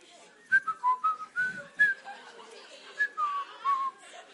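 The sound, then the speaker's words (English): Someone whistles a casual, wandering tune, with short bright notes rising and falling in a loose melody over a few seconds, no talking. “Whistling.”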